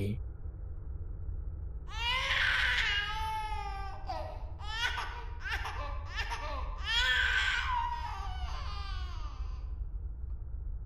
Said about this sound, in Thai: เสียงร้องของเด็กยิ่งดังขึ้น แต่ชายคนนั้นยังคงยืนจ้องไม่ขยับขยื่นถึงตรงนี้เสียงร้องมันดังมาก จนผมแทบทนไม่ได้